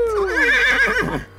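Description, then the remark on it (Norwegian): A horse neighs once for the quiz 'Hest, hasj eller hiphopper' on the Radio Nova morning show Frokost: a loud whinny with a shrill, quavering tremolo that wavers in pitch before fading out, heard on its own with no talking. “Hest.”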